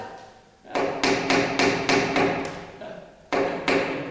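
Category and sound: tool, hammering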